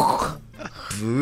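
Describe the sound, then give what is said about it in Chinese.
In a recording studio before recording, a person with a blocked nose clears it with a rough, low nasal snort and grunt that sounds like a pig, then follows it with a brief voiced, wavering sound. The snort is moderately loud and lasts about a second. “每次要录音之前都会发出猪叫声”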